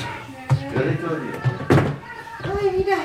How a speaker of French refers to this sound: Est-ce que je ferme la porte eh, Je laisse ouvert. La porte d'entrée.